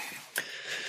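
A single short, breathy sneeze bursts out midway, quick and fairly soft, against a quiet background hiss with no talking.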